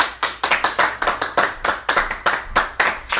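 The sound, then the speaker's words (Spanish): An audience at a church service applauds to welcome a visiting sister, with steady, overlapping claps at a quick, even rhythm, bright and fairly loud for a few seconds, with no voices heard. “Bienvenida, hermana. Un aplauso.”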